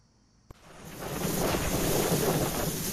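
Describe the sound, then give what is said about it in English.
After a brief click, a loud, roaring rush of wind buffets the microphone, swelling quickly and staying strong and steady with gusty fluctuations, with no voices present. “See, this is how windy it is.”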